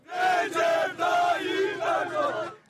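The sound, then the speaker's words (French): A large crowd of Recep Tayyip Erdogan's supporters chants loudly in unison after his first-round election performance, voices rising and falling in short rhythmic phrases, energetic, with no speech over it. “Les supporters de Recep Tayyip Erdogan l'ont bien compris, la performance de leur leader a presque un goût de victoire.”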